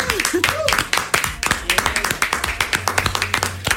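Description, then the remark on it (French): A burst of brisk applause, many hands clapping in quick, uneven rhythm for a few seconds, with a brief voice and a low hum mixed underneath. “Ovation, s'il vous plaît.”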